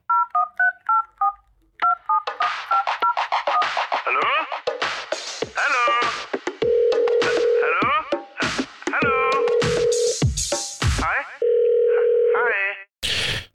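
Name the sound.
telephone dial tone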